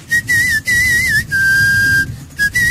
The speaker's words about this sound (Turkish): ıslık çalmak deyince sen şu e, şey ıslığı yapsana. Yatay ıslık mı? Yatay ıslık.